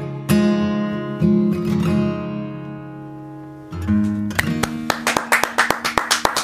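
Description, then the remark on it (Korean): Sustained musical chords from a live song performance ring out. Near the end, a run of sharp, evenly spaced claps breaks in, loud and rhythmic, as a standing ovation begins over the fading notes. “기립박수를 드디어 치네.”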